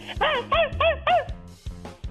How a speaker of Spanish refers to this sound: Ah, qué feo ladra tu perro.